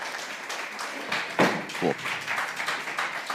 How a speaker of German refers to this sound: Vielen Dank. Applaus. Jawohl.